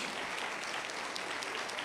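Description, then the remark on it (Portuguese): An audience claps steadily, a dense, even patter of many hands with no pauses and no voices standing out, applauding the married people present. “Vamos aplaudir os casados aí, resistiram.”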